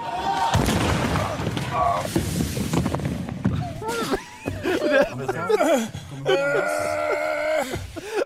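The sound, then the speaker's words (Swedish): A heavy thud as a person crashes straight into an upward-pointing plywood ramp without reaching the jump, followed by pained groaning and wailing with some laughter and excited voices. “han smäller ju rakt in i liksom plywooden som pekar uppåt”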